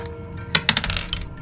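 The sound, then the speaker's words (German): Dice clatter across a hard surface as everyone in a game rolls, in a quick burst of sharp clicks and rattles lasting under a second, over a low background hum. “Es müssten alle würfeln.”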